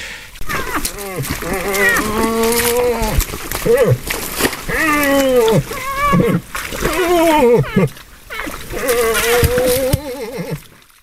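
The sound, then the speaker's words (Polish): A bull moose in rut, courting a female, gives a series of deep, drawn-out groaning grunts, loud, repeated one after another with brief pauses over several seconds. “Odgłosy, które słyszycie w tle, to nie żaden stękający staruszek, lecz łoś, starający się o względy samicy.”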